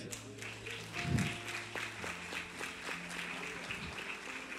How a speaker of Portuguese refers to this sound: aplaude a Deus, aplaude.